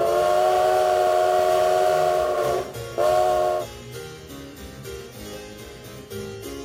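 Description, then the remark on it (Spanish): A steam train's whistle gives a long, loud blast, then a second short one, followed by the rhythmic chuffing and rumble of the locomotive. No one speaks. “Esto viene siendo la primera revolución industrial, o 1.0, la propulsada por Steam en inglés, vapor en español.”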